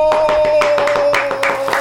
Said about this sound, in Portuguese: Obrigado, obrigado, obrigado pelos aplausos. Caríssimos e baratíssimos ouvintes, agradecendo essas palmas amigas que nos chegaram do povo brasileiro.